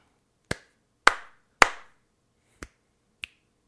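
Three sharp hand slaps with short ringing tails, followed by two crisp finger snaps, spaced unevenly, with silence between and no talking.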